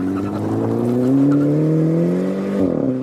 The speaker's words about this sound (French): Cooper s'occupe de l'arbre à cam, du carburateur, de la transmission, des soupapes et des freins qui reçoivent des disques. Cette fois, le 4 cylindres fait cracher la foudre.